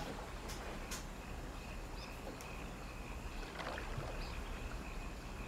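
Water laps gently and continuously, with soft splashes and small sloshing sounds, as if against a small boat. The sound is steady, with no voices.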